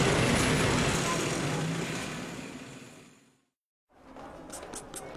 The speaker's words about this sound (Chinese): 马路上塞满了公车、汽车和机车，街道上人挤人